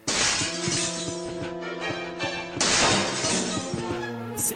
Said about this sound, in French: c'est une scène iconique qui est même connue par celles et ceux qui n'ont jamais joué à un Resident Evil de leur vie. Ce serait la fameuse scène du couloir euh, dans le manoir euh, du premier avec, avec les chiens traverse les vitres.